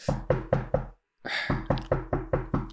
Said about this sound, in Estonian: oh.. ei, ei, see on sinul, see on sinul, koputatakse.